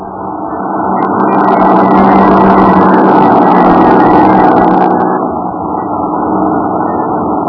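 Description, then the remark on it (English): The engine of Robertson's truck runs steadily as the carnival packs up and leaves town, a thick continuous rumble with no speech, and a brighter hissing whine rides on top for several seconds in the middle. “And in Robertson's truck a few hours later”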